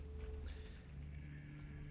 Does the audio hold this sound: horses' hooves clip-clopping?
yes